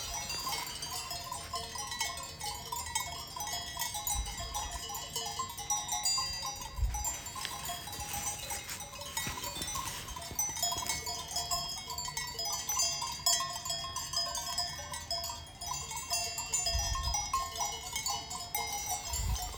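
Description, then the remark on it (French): Many small, high-pitched bells on a flock of 120 to 150 sheep, ewes with their lambs, jingle continuously and unevenly, forming a dense metallic chiming that fills the scene, with occasional faint bleats and no talking, during a walk around Mont Bénan. “Et les petites cloches que vous entendez, c'est un troupeau de 120, 150 moutons avec leur agneau, avec des brebis ça fait une belle petite euh, symphonie qui ressemble aux cloches d'Auvergne mais avec un son un peu plus aigu.”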